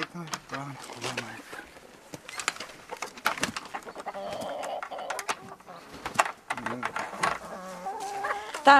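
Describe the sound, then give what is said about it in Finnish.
Several hens cluck in short, irregular bursts and murmured calls, with some louder squawks mixed in, on a chicken and donkey farm, while a person talks quietly in the background. “Piti moikata kanojakin välillä.”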